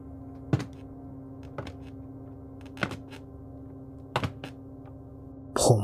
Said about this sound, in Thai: ขนาดแค่เสียงไม้ลั่นตอนผมเหยียบขั้นบันได ยังทำผมขนลุกได้ แต่ละก้าวที่ผมเดินลงสู่ชั้นใต้ดินที่มืดสนิท มันยิ่งทำให้ผมกลัวจนอยากจะเปลี่ยนใจวิ่งหนีกลับขึ้นไปข้างบน